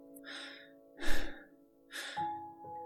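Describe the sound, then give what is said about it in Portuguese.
Three heavy, rasping breaths in quick succession, loud, with a sharp gasping push on the middle one and steady low tones humming beneath, from a person climbing whose breathing grows harder and faster. “Cada vez mais difícil e rápida.”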